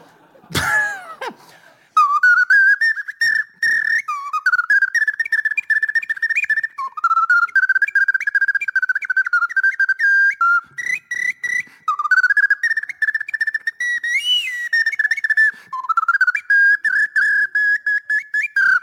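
An ocarina plays a fast, galloping heavy metal melody in bright, breathy tones, with rapid repeated notes and short phrase breaks, after a brief cough at the start. No one speaks.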